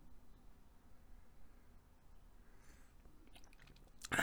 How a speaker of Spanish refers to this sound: Le estoy tomando un traguito a mi café, ya saben que siempre grabo con un cafecito, pero bueno, por eso es que a veces escuchan pausas.